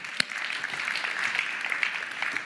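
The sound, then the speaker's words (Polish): An audience claps steadily, a dense crackle of many overlapping hand claps at an even, moderate loudness with one sharper clap standing out near the start. “Chciałam brawa dla Was.”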